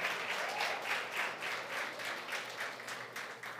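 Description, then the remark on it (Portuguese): A church audience applauds for the king during a sermon, a dense wash of many hands clapping at once with a lively, fluttering rhythm that holds at an even loudness throughout, with no voices standing out. “Quantos podem dar uma salva de palmas para o rei?”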